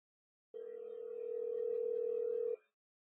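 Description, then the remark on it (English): A single steady electronic telephone tone hums for about two seconds, a ringback on a phone call being placed to a man, clear and fairly loud with no voices. “I'm going to try to get him on the phone early because the two segments we have with him are going to be like really epic long.”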